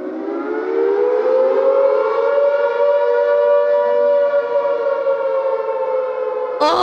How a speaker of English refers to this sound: Oh, the wail of the sirens, it was awful. It, because it had to penetrate everywhere.